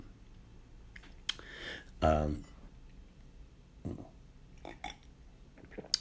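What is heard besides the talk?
sipping a drink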